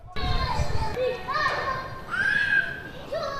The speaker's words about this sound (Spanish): apenas hemos encontrado a nadie jugando en los parques. Muy distinto al panorama en Miribilla, que nos ha recibido con este sonido